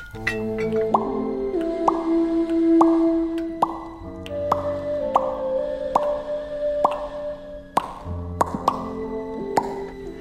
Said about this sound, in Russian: Армянин тем временем достал граненый флакончик и стал капать.